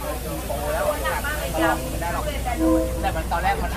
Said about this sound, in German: Alter, ist das krass. Ja. Also das ist ähm, sehr krass offensichtlich. Ja, hat man gehört. ähm, aber man hat ja auch eben gehört, dass dieser Zug wirklich extrem nah ist.